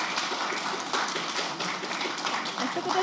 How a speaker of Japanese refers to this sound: 皆さん拍手お願いします